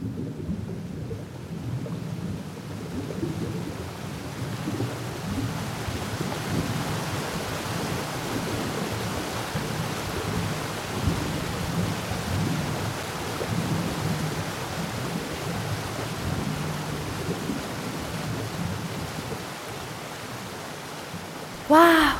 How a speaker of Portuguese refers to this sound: foi um toró daqueles mesmo, hein?